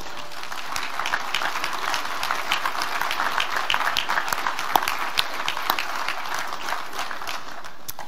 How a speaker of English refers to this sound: During the last academic year, NBC has helped over 950 individual students prepare for Christian ministry through its degree and non degree programs and I think that deserves a round of applause.